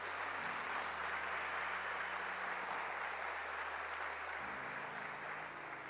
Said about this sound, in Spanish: Si alguien puede aplaudir al Señor, hágalo esta mañana.